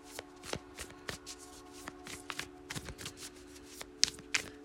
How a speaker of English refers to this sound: I will be shuffling the Light Seer's Tarot.